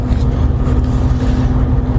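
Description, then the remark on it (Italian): A fishing boat's engines churn steadily at slow speed as the boat circles on its way to the fishing area, a deep continuous rumble with a constant hum, loud, with no voices over it. “Sentite i motori del Savonarola che stanno pompando a lento moto per portarci appunto in zona di pesca.”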